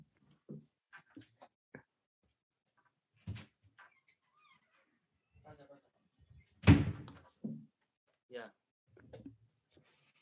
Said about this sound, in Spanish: ¿Me das un momentito que le voy a abrir a mi gato?